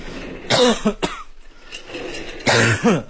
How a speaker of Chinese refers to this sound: 嗯，这这两天不知道咋回事，老咳嗽。